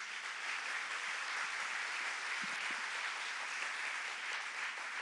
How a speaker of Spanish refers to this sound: Diga aleluya, dale un aplauso a Jesús.